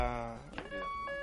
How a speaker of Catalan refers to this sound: Ens estan... Això és una alarma, no?